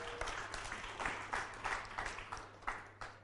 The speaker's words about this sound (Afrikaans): kom ons gee vir hulle ook 'n hande klap.